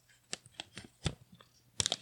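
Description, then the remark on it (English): Quiet crinkling of a sheet of paper for ASMR, with irregular dry crackles and rustles spread across a couple of seconds, ending in a brighter cluster of crisp snaps. No voices. “Like me crinkling paper.”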